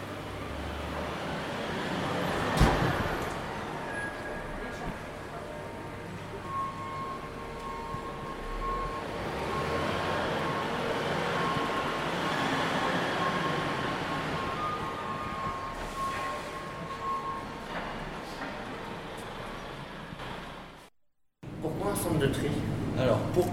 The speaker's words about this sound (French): Direction le centre des tri à la Riche. À l'arrivée, le camion de collecte passe sur la balance. 9840 kg pour celui-ci, presque 10 tonnes.